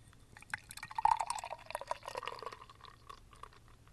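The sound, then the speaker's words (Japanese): An ESB beer, brewed with Job's tears (hato mugi) tea as its brewing water, glugs and splashes as it is poured into a glass, a steady bubbling trickle with a bright gurgling tone that swells midway, then settles into a softer fizzing fill. No one speaks. “じゃあ注いでいきます”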